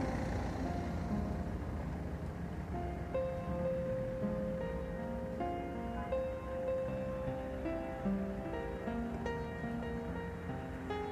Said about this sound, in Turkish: Duyuyorsunuz bak araba seslerini. Sadece araba sesi. Araç sesi. Motor sesi.